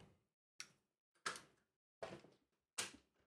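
A door is opened and shut as a woman goes out, with a string of four or five sharp wooden clunks and thuds, each ringing briefly before the next, with no talking.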